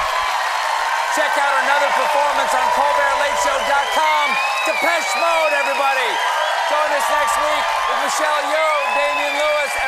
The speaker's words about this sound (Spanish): Muchos aplausos, gritos en el show de Stephen Colbert.